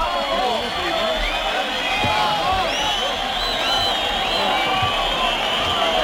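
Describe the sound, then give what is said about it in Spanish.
A packed bullring crowd in Écija clamors loudly and continuously, demanding an ear trophy for bullfighter Borja Jiménez, countless overlapping shouts and whistles merging into a steady roar that never lets up for the whole stretch. “Y ahora hay petición, fuerte petición para Borja Jiménez que de cortar trofeo saldrá por la puerta grande de Écija.”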